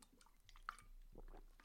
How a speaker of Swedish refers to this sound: Whisky? Nej då. en klunk det, vatten. Det får man.